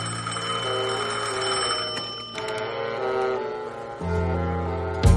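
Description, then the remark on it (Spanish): A telephone rings in a bedroom with a steady, buzzy bell tone over sustained music, moderately loud, ending in a sharp clatter as a man answers it. “Él atiende el teléfono.”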